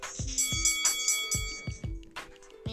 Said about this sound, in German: Ich habe eine Wrestling-Ecke. Ähm, und dann nehme ich auch noch diese Glocke.